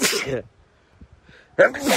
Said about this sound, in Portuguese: E eu vou espirrar.